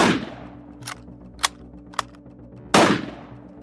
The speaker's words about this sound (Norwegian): kaster seg ned bak ei gran mellom kraftstasjonen og huset. Han sikter og skyter en rekke skudd.